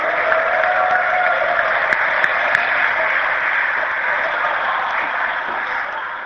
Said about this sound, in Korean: 박수를 보니까는 그 인기도의 실감이 확 나는구나.